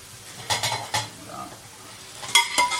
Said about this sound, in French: Donc là, tu fais poêler ton kale ouais. Sécher un tout petit peu pour que ce soit pas, euh, ça rappelle pas les épinards euh, de, la cantine.